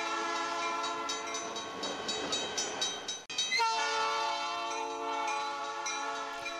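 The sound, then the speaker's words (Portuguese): A train horn blares in long, steady harmonic blasts, briefly cutting off mid-clip and then resuming, with a faint rumble of the passing train underneath and no talking. “Vocês não estão escutando o trem? Estão escutando o trem? Acabou de buzinar aqui, ó.”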